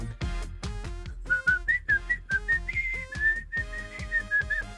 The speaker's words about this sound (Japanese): これ難しいななんか音楽もかかってるところだから ああ結構できるんだ結構出る音が口笛